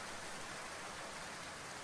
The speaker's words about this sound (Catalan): Dins l'edifici Margalef residia un silenci intranquil en el temps, trencat pel so de l'aigua en xocar contra aquell sostre de cristall on tothom volia arribar algun dia en aquella facultat.